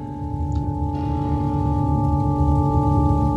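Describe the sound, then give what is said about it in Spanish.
A steady, unwavering shortwave numbers station tone, a station that could be heard on any segment of the shortwave band in the 1980s, hums for the whole stretch, several pitches layered together over a bed of crackly radio static, with no voices. “Esta emisora se podía escuchar en cualquier segmento de la onda corta, allá por los años 80.”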